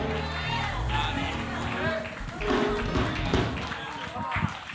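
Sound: audience cheering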